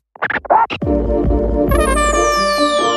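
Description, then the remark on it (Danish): A music beat kicks in with a few quick record-scratch sounds, then settles into a steady groove with deep bass thumps, sustained synth tones and a high sweeping effect, loud. “Jeg har fået høretelefonerne på. Kan jeg få mit beat?”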